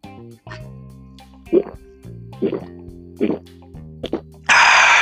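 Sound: sipping water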